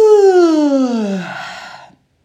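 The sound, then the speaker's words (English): A single long, drawn-out yawn from one person during a guided breathing and stretching exercise, fairly loud, its voiced tone sliding downward in pitch before trailing off into a breathy exhale. “and if it's early morning for you, or any time actually, you can yawn”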